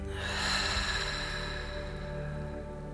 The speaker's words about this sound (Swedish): Och de här andetagen ska vi ta in genom näsan och så ska vi pusta ut luften genom munnen. Nästan som att vi blir en ballong i hela kroppen. Så vi andas djupt in genom näsan och släpper ut genom munnen.